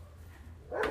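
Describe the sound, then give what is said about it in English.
A single, fairly loud dog bark sounds out near the end after a stretch of low background hum. “I'm sorry about the dog barking.”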